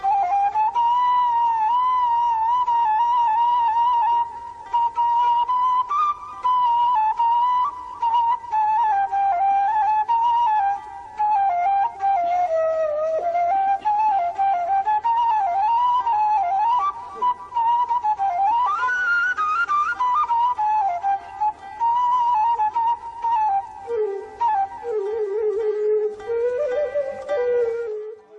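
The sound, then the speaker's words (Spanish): Arabic music in maqam saba: a single sustained melodic line with bends and ornamented slides, playing steadily and fairly loud with no talking, dipping lower near the end. “También escuchemos juntos como suena un makam saba en música árabe.”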